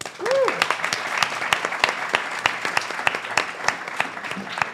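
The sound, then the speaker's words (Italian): A crowd applauds steadily, dense overlapping claps forming a continuous rustling wash, with a brief rising whoop or cheer near the start, welcoming a Microsoft AI Specialist Director as guest on the show Cheers. “Applauso direi, cacchio.”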